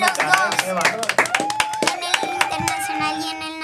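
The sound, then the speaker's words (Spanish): A burst of applause on a show, many hands clapping quickly and steadily for several seconds, loud, with voices calling out and cheering beneath it, for a boy who did 70 calculations in under 5 minutes without a mistake. “Aplauso, Luisito. Ponle fanfares a mi muchacho.”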